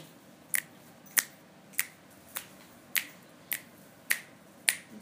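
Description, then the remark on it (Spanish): Eight crisp finger snaps, made to come out of a self-healing practice, land at a steady, even rhythm, each a sharp bright click standing out clearly over a faint background hiss, with no talking. “Después de hacer los chasquidos, ¿ok?”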